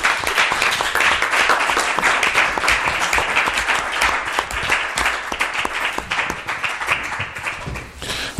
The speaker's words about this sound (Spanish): aplauso para...